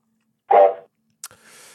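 A dog lets out a single short, sharp bark, fairly loud, followed after a pause by a brief click and a soft rustling hiss.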